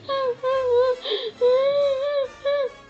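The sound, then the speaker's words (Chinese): A voice acts out tearful crying: high, wavering whimpering wails in four drawn-out bursts with brief pauses between, fairly loud and heard alone without other talk. “说着说着，小可乐瓶又伤心的哭了。”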